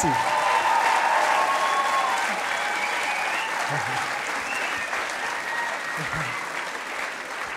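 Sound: audience applause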